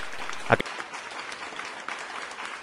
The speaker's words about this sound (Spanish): ¡Ay! Aplausos, aplausos.